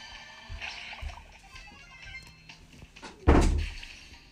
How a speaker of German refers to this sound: Da ist gerade meine Mutter reingekommen und hat so laut die Tür wieder zugemacht.